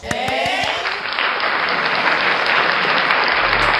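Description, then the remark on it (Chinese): A crowd of school students bursts into sustained applause during a speech, dense overlapping clapping that stays loud and steady for several seconds, with a few distinct claps standing out at the very start. “能不能等一下再鼓掌啊？鼓掌。”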